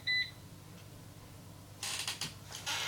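A robot vacuum cleaner that has driven somewhere and cannot get out gives one short, high electronic beep, then falls quiet before bursts of rattling, scraping mechanical noise. No one speaks.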